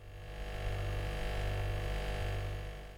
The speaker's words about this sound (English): Let's cool down with some soothing ASMR. I'm here with my fridge, Big Freezy.